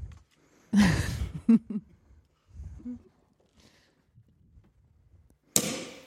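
A cork pops with a sharp burst and a brief fizzing hiss, followed by a few soft handling sounds and another loud rush of hiss near the end. No speech.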